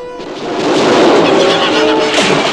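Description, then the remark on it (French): Loud, rumbling rifle gunfire aimed at a huge shark in the water fills the moment, a dense roar of overlapping shots and echoing booms that stays strong for a couple of seconds without any voices. “Aussitôt, Fritz et son père s'emparèrent d'un fusil et tirèrent sur l'animal qui rôdait autour du pauvre petit âne.”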